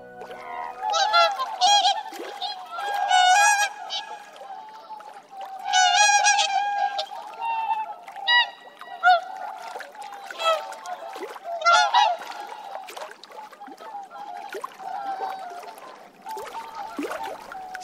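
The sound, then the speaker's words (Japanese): Whooper swans, large white birds about 140 cm long, call repeatedly across a lake nearly 100 km around on a winter morning as the first snow falls: a chorus of loud, slightly off-key trumpeting honks, overlapping in bursts with brief pauses, with no voices present. “少々調子外れのトランペットみたいな鳴き声オオハクチョウですオオハクチョウは全長およそ140センチ羽を広げると2メートルを優に超える大きな鳥です”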